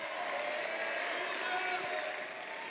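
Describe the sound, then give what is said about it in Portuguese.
A crowd claps and shouts together in a steady, dense roar of praise glorifying God in the name of Jesus, voices overlapping throughout without a pause, loud. “Eu quero mais barulho, eu quero mais voz, eu quero mais griteiro, eu quero mais glorificação no nome de Jesus.”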